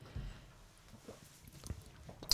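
Someone takes a quiet first sip of wine, with soft wet mouth sounds and small clicks, ending in a brief, slightly louder slurp. No one speaks.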